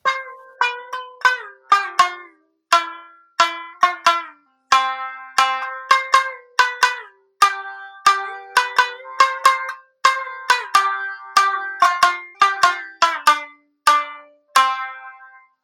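An Okinawan sanshin, a three-string lute, plays a lively melody of bright, twangy plucked notes, each decaying quickly, in a steady rhythm with occasional strummed clusters; no one speaks.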